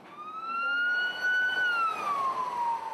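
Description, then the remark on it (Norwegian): An ambulance siren in Romania, shuttling to care for people with heatstroke, wails steadily, its pitch slowly rising and then sweeping down, loud over a low background of traffic rumble, with no one speaking. “I Romania går ambulansen i skytteltrafikk for å ta seg av folk som har fått heteslag.”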